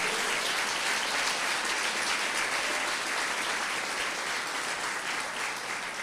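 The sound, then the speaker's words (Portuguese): An audience at a church service applauds the Lord steadily for several seconds, a dense, even wash of many hands clapping at once with no pauses and no voices standing out. “Olha, aplaudir o Senhor aí.”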